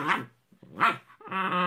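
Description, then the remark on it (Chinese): An adopted pet dog named MJ barks three times in quick succession, loud and harmonically rich, the final bark stretched into a longer, more tonal yelp. No one speaks. “而且刚回来的时候没多久，又领养了一只狗狗。”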